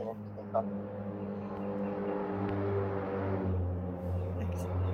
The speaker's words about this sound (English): Sorry, there's a helicopter flying over me right now. It's really loud.